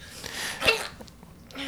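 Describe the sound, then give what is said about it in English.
A single sharp, brief sneeze bursts out, with a soft hiss of breath around it and no talking. “Bless you, sir. Bless you.”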